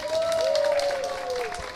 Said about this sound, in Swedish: Jag tycker vi ger dem en applåd.